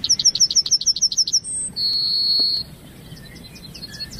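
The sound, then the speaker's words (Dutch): A yellowhammer sings clearly: a quick run of about ten high, buzzy chirps followed by a long drawn-out whistled note, then fainter bird calls in the background. “Oké, dat, is de hele gele niet te verwarren met de grauwe gors”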